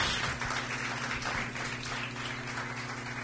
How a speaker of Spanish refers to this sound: Dale un aplauso a Dios. Porque ese es un milagro de Dios.